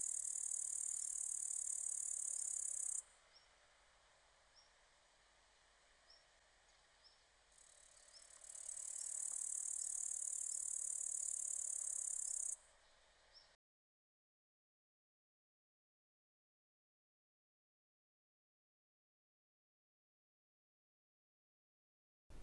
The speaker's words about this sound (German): Die Grille. Musiziert wird aber immer noch. Ja, lauter als zuvor. Tschirr, tschirr, tschirr. So ertönt es. Dann ist eine Weile still. Jetzt wieder. Tschirr, tschirr, tschirr.